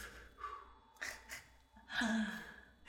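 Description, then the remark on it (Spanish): A person breathes heavily and gasps for air, with several ragged breaths in quick succession and a longer, louder gasp near the end. No speech is heard. “Y nada, amigos, o sea, yo fascinado ya, de hecho ahí se acabó el anime y yo respirando.”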